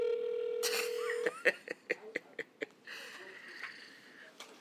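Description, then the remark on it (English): A steady dial tone hums briefly, then a quick run of about seven distinct keypad beeps as a phone number beginning 212 is punched in to call someone, followed by faint line noise. “So let's get him over the phone. Let's see here. 212.”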